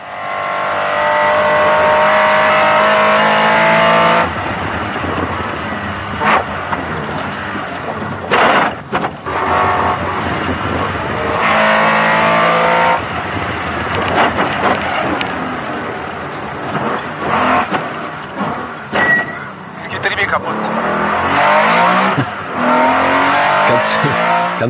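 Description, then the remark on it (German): Onboard sound from a race car: a loud, strained engine howling and revving with harsh grinding, clattering and squealing noises throughout, cutting out briefly a few times before roaring on. “trotz der nicht so ganz angenehmen Geräusche, bei denen jeder normale Autofahrer jetzt überlegt, wie viele Urlaube für diese Reparatur wieder draufgehen werden”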